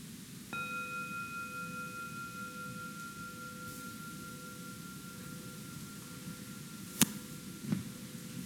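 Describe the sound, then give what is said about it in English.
A single meditation bell is struck once to close a formal meditation practice period, ringing on with a clear, sustained tone that slowly fades over several seconds against a soft background hiss, followed by a couple of faint clicks. “And then I'll uh, ring the bell to bring this formal practice period to a close.”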